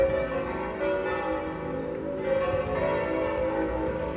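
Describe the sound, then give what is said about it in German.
Church bells ring steadily, striking the hour at 1 p.m., their deep overlapping tones humming and sustaining without pause at a moderate level. No voices are heard. “Hört ihr's? Das ist aber sowas von Punkt 13 Uhr.”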